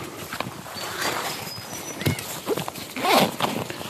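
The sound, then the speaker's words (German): A black cockatoo gives a rough, rising-and-falling screech near the end, preceded by a few shorter harsh notes, over a steady background of rustling and crackling. “Ah, wow, ein Riesenpapagei versuche mal ein Foto zu machen.”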